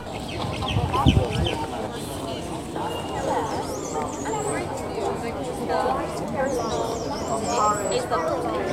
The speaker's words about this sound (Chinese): 在福林社停留的我，听到了英语公园书声朗朗。对，现在七点半，还在早读时间。早晨空气清新，鸟语清风，外面的嘈杂影响不了这里的声音与美景。